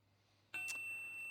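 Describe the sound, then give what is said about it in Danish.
A short electronic notification chime from a phone as a text message (SMS) arrives: a bright ding with a steady high tone that lingers briefly, moderately loud, with no talking. “Ja, der kommer en sms.”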